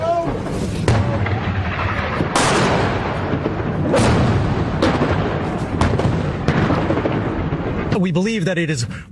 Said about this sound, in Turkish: Az önce yaşadığımız o büyük yaylım ateşi geçmiş gibi görünüyor. Dalgalar halinde geliyorlar ama bu seferki neredeyse tam tepemizdeydi.